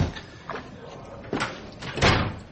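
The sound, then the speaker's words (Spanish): A door is handled as a person walks to it: a soft creak and knock, then a firmer closing thud about half a second later, with no voices. “Se dirige a la puerta.”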